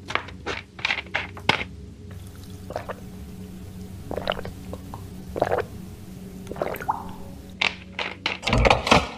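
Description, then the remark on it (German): Someone drinking water in a series of wet gulps and swallows, irregularly spaced, with a low steady hum in the background and a louder slurp near the end. “Oh, lang nur zu, ich habe Wasser.”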